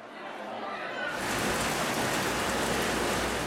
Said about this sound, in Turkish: Antalya'da da benzerdi manzara. Aşırı yağış ve fırtına kenti etkisi altına aldı. Gazipaşa ilçesinde kentin en merkezi noktasında biriken yağmur suyu esnafa zor anlar yaşattı.